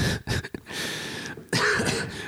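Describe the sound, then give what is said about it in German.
Several throaty coughs from a person hiding laughter as coughing: a quick cluster of short bursts, a brief pause, then a longer, rougher cough at the end. No one speaks. “Ich kann mein Lachen aus, als Husten äh, verstecken.”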